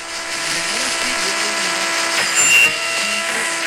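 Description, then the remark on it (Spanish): A steady wash of radio static hisses throughout, threaded with faint humming tones, and a brief high whistle rises near the end as the dial is turned. “Prenderé la radio para ver si en las noticias informan algo al respecto.”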